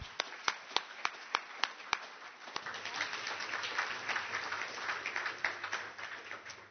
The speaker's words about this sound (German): Und vielleicht können wir ihn mit einem kräftigen Applaus begrüßen.